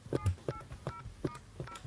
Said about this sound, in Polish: Teraz jak telefon dzwoni, normalnie wybieramy numer tonowo.